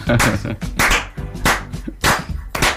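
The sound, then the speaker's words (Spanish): An audience claps in a slow, steady rhythm, about five loud bursts roughly half a second apart, with voices and laughter running underneath. “Aplaudamos. A ver si, aplaudamos.”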